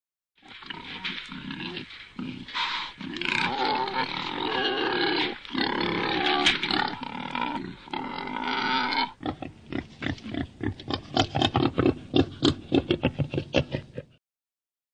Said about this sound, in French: et puis euh, au fameux, ragotage. Il a plein de noms, le sanglier, les cris du sanglier.